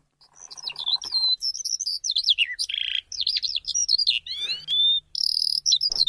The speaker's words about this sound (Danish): Jeg kan sådan med nød og næppe kende forskel på en stork og en solsort, men det her, det skulle så være lærken, en af Danmarks mest al- almindelige fugle.